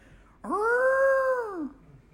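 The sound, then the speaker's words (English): A voice mimics a World War II air raid siren with a single wailing tone that swoops up, holds steady for about a second, then slides back down. It is fairly loud and alone. “Nope, that's World War II bombs sirens.”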